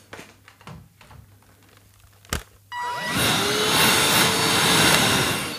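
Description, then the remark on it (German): A few soft handling clicks and a sharp click, then a small handheld vacuum cleaner switches on to clean a microphone, its loud high-pitched whirring drone running steadily to the end. “Das macht man ja nicht, wenn man erstmal irgendwo aus der Abstellkammer den großen Staubsauger mit dem langen Schlauch holen muss, sondern man nimmt, schnappt sich einfach das Ding.”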